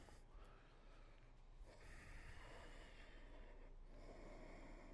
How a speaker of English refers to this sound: Seal your lips and generate the sound of aliveness, ujjayi breathing.